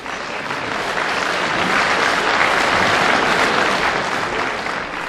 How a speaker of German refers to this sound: Am Ende der Versteigerung weicht die Ungläubigkeit tosendem Applaus.